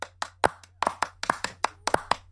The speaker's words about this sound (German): Hier, kleiner Szenenapplaus.